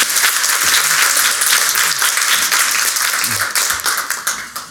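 Steady audience applause from many hands for a guest speaker at an event, a dense, loud crackle of clapping that holds throughout before starting to thin out near the end.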